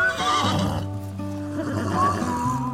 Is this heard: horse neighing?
yes